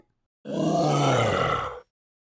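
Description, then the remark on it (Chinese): A single deep, rasping growl from a giant tiger monster, lasting under a second and a half, loud and sustained with a rough, rumbling texture, rising in and cutting off abruptly; no talking. “房间的另一头也传来了恐怖的低吼声。”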